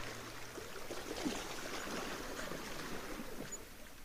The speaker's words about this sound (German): Wir sind über den angenehm warmen Sand zur Mitte des Strandes gelaufen und stehen nun dort, mit dem Blick auf das ruhige und klare Meer.